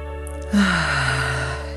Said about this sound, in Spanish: Así, toma una respiración profunda, vamos a conectar con tu presencia. Inhalo.